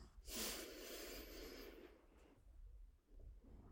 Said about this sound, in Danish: Og så må du gerne bare tage en god, dyb vejrtrækning helt ned i maven.